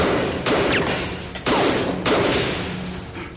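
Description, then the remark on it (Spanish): Three loud gunshots from a pistol go off at uneven intervals, each a sharp bang followed by a lingering, rumbling decay, with no talking. “Este le dispara, pero Carlos consigue ir por la puerta del garaje.”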